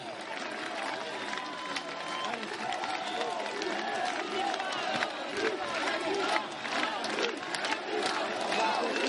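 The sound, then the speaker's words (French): A large crowd chants the speaker's name over and over, many voices shouting together in a loud, steady roar with a rough rhythmic pulse that keeps going without a break. “On ne crie pas mon nom.”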